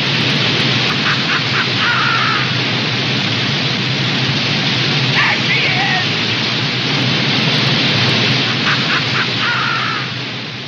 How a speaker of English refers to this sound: The end of Thunder Bay has Jimmy Stewart and Progress triumphant as a gusher of oil showers onto the Gulf waters.